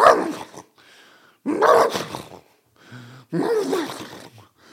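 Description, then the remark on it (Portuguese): A voice imitates a fat wild boar that has been shot, does not die at once and is falling: three loud, raspy, growling grunts, separated by quieter low groans and brief pauses. “Parecia um javali que tinha sido abatido no meio do Alentejo Estão a ver um javali que está a andar gordo e leva um tiro e está tipo.”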